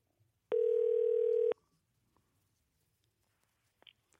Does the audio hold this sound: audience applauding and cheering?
no